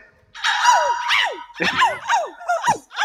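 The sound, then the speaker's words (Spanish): A voice imitates a little dog yapping as the puppy in a children's farm song: a drawn-out high whine followed by about five quick, high-pitched yips with falling pitch, fairly loud and alone. “Y en la granja un perrito, ea, ea, yo. Y el perro.”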